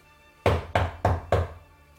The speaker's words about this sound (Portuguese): De repente, eles que batem na porta. Aquelas, aquelas portas de madeira.